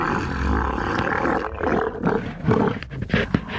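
Camels bellowing mating calls, a loud, continuous gurgling roar that swells into rough bursts and throaty grunts toward the end, with no one talking.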